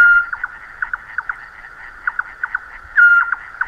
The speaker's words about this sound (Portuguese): Em julho, o mocho de orelhas assobia à lua.